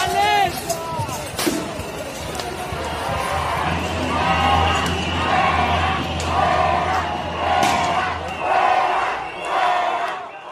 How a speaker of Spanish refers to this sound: Las bombas lacrimógenas empiezan a llover sobre una plaza en la que al menos unas 20.000 personas corean en contra de la violencia.